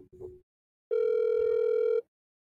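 An outgoing call rings through a phone speaker: one steady, buzzy ringback tone lasting about a second, preceded by a short, fainter fragment of the same tone. No one speaks.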